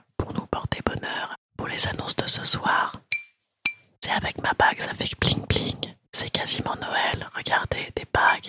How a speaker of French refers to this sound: des bouteilles de champagne. Écoutez ce joli son.